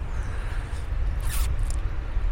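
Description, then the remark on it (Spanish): An electric fan blows right against the microphone from about half a centimetre away, producing a steady, loud low rumble of buffeting wind with brief hissy flutters, and no one speaks. “no sé cómo se escucha el sonido de un ventilador.”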